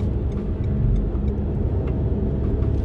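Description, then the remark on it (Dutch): Steady low rumble of a car in motion driving past a Van der Valk, heard from inside the cabin, with continuous road and engine noise filling the background and no clear speech. “Want ik rij nu langs Van de Valk.”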